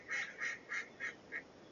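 A duck quacks five times in a quick, even series, each quack a bit softer than the last, over faint background noise with no talking.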